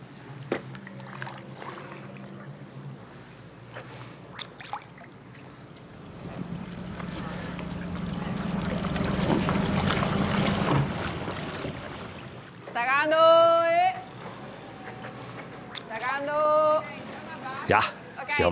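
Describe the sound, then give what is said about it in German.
A small boat is paddled along a canal in Venice with soft splashing, rippling water and a swelling wash of ambient noise; near the end a person calls out loudly twice in long, drawn-out shouts, announcing the boat's direction to alert other boats. “paddelt durch Venedig”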